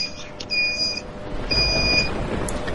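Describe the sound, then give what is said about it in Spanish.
Two electronic alarm beeps, each a steady high-pitched tone lasting about half a second, separated by a short gap, over a low rumbling background with no one speaking. “Se escucha el pitito.”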